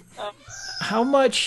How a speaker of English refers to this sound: you can probably hear the birds screaming in the background now